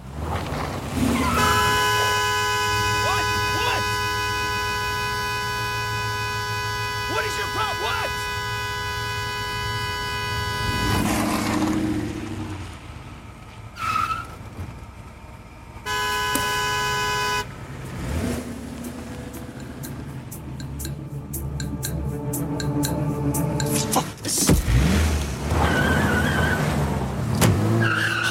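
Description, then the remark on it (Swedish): A violent road-rage incident between a woman and a man in Los Angeles over a blocked parking space: car horns blare in long, sustained blasts over rumbling traffic, then cut out and return briefly before engines roar and tires screech, loud and chaotic, with no talking. “den börjar med ett sånt här våldsamt trafikbråk mellan en kvinna och en man.”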